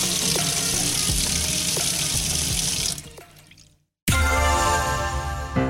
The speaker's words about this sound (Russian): Не пустить их легко. Просто хорошенько помыть руки перед едой.